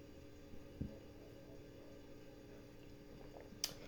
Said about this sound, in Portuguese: Tomar uma água aqui.